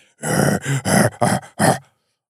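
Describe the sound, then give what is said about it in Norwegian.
A voice imitates a huge gorilla roaring: five loud, rough, throaty bursts in quick succession, each under half a second, with no words spoken. “Og da plutselig så tok den der svære gorillaen og brøla ut”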